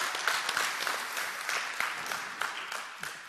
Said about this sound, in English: And we just went live moments ago at our Tupelo campus. Make some noise for those guys over there and gals.